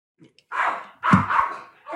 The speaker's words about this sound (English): Dogs, dogs, dogs, dogs, dogs.